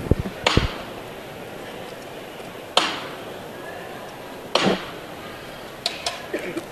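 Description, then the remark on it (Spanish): Three sharp, loud hammer knocks, evenly spaced about two seconds apart, signal the lifting of the procession float (paso) of the Cristo del Calvario on Calle San Pablo, ringing out over a steady murmuring background, followed by a few fainter clicks at the end. “Martillo, esos tres golpes de martillo.”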